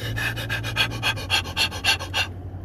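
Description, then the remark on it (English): A voice imitates a dog panting: about ten quick, breathy huffs in a steady rhythm, fairly loud, ending abruptly, with a low hum underneath. “panting friggin' dog that I care so much about over there, just in the other room.”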